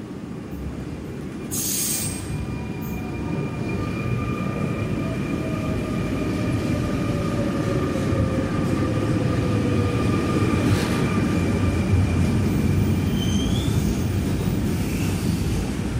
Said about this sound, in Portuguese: entrada para os comboios, atenção à distância entre as pontas e a plataforma.